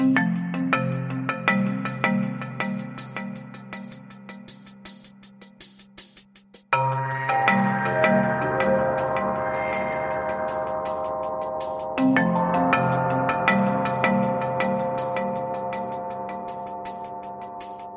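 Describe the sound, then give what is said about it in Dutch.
A rendition of the European anthem, the final chorus of Beethoven's Ninth Symphony setting Schiller's Ode to Joy, plays alone, with bright, steady melodic notes over a pulsing rhythmic accompaniment, pausing briefly before resuming at a constant, fairly loud level. “wat hoorden wij zojuist? Je het Europese volkslied. De negende van Beethoven. Het slotkoor.”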